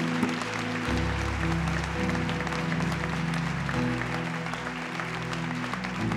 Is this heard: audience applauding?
yes